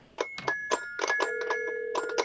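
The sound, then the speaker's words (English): A rapid run of electronic phone dialing beeps, about eight or nine short tones in quick succession, with a couple of steady tones holding underneath, played as a call to a Blockbuster store is dialed. There is no talking. “Let's get some dialing music for uh,”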